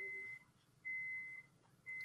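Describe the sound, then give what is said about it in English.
A steady electronic beep repeating at regular intervals, each tone held for about half a second with short gaps between, faint and in the background with no one talking. “You hear that beep in the background?”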